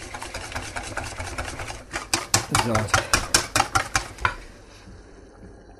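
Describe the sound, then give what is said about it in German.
Sauce cooks in a pan with a steady sizzling hiss, then a run of sharp, rhythmic bubbling pops before it settles down. A voice briefly speaks near the start. “Ihr hört die Soße.”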